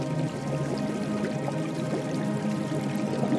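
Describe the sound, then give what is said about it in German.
Steady splashing and gurgling water from a hot geyser, a continuous bubbling wash of sound at an even, moderate level with no voices. “Das Plätschern des Wassers singt dir sein süßes Lied.”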